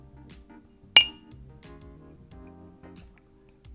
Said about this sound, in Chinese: 好，干杯。 干杯。